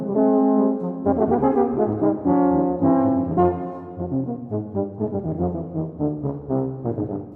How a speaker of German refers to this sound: Da sind sie, drei Tuben auf einmal, echte Schwergewichte der Blechblasfraktion und fern vom Image, dass eine Tuba vor allem dicke Backenmusik macht, denn dieses Instrument kann auch ganz virtuos klingen.